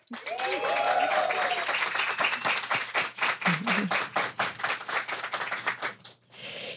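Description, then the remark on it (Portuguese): A live audience at the Cine Clube Cortina bursts into loud, steady clapping with whoops and high cheers rising over it early on, the applause continuing densely before thinning out near the end. “Faz barulho!”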